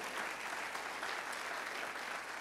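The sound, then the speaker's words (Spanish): Steady applause from a church audience during a sermon, clapping for the mercy of God, a dense wash of many hands clapping at once, sustained at an even level throughout without any voices standing out. “Alguien aplaude la misericordia de Dios.”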